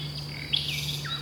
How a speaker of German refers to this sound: 1000 Strophen pro Nacht und bis zu 3000 pro Tag schaffen, also Nachtigallen. Das ist also tatsächlich gigantisch und ähm, ja, wie sie lernen.